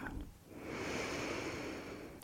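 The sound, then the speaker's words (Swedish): A slow, drawn-out ujjayi breath inhalation with slight resistance in a narrowed throat, producing a steady hissing, ocean-like rasp that swells and holds for about two seconds, fairly soft. “Ujjayan ett tag med det där lätta motståndet i halsen. Andas in.”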